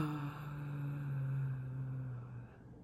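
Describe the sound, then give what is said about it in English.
A deep, gravelly voice singing in kargyraa, a Tuvan or Mongolian throat-singing style, holds one low, buzzing drone for about two and a half seconds, steady, with no other sounds around it. “Tuvan or Mongolian throat singing, and there are three types of singing styles Kargyraa, Khoomei, and Sygyt.”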